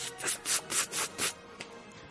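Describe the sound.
A voice imitates a toy water pistol with a rhythmic run of about five breathy, hissing squirts, followed by one short final spurt, all fairly soft and with no talking.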